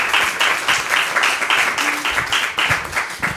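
A burst of applause from a small group after a short reading of poetry, steady overlapping claps forming a dense, bright patter that stays fairly loud throughout, with a faint voice briefly audible beneath.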